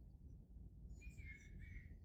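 Several birds sing and chirp in a quiet forest, their thin high calls overlapping over a low, steady rumble of background ambience.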